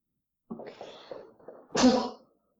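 A single loud sneeze bursts out after a brief breathy build-up of inhaled gasps, ending abruptly with no talking around it.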